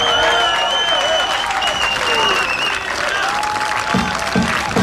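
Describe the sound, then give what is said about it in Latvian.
Sustained audience applause and cheering for a speech by minister Sanita Mūžniece, fills the whole stretch, a dense steady wash of clapping with whoops and cheers rising over it, loud throughout with no pause. “Aplausus Sanitai Mūžniecei!”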